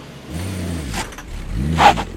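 An old car engine revs up twice in quick succession, its pitch rising with each push of the throttle as the vehicle pulls away to drive 8 kilometres home, fairly loud.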